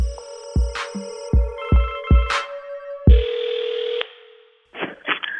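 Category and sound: signal or alarm, telephone call ringing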